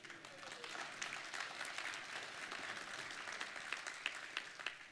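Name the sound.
audience clapping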